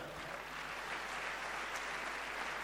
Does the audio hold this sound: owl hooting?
no